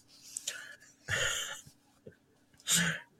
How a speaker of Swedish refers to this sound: Så nu undrar om det är varför ni hör massa smaskande. Det är precis för att jag sitter och äter min deprimerande pizza här.